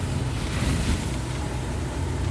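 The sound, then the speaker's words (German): Steady rushing, splashing wash of a car's tyres rolling over a wet road through puddles in rainy weather, a broad hiss over a low engine rumble, holding even for a couple of seconds with no talking. “Wenn ich hier so durch die Pfützen fahre.”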